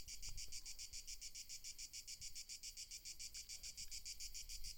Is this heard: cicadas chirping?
yes